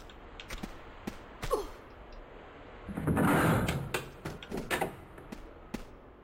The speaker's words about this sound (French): Ah, il me semble, euh, c'est une porte à timing, ça.